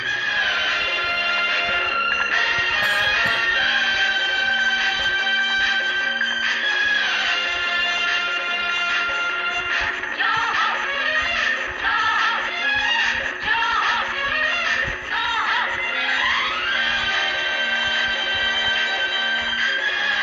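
An energetic Tamil film song from the film Thaai Veedu plays loudly and continuously, with dense layered instruments and bright, busy melodic lines throughout, no talking over it.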